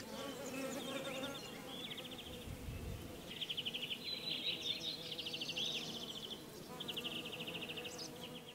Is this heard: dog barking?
no